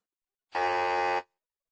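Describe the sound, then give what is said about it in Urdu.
A single harsh quiz-show wrong-answer buzzer sounds once, a steady, flat buzz lasting under a second, clear, with silence on either side. “یہ آواز غلط جواب کو ظاہر کرتی ہے یہ جو آواز ہے یہ دراصل بزر کی آواز کا اظہار ہے”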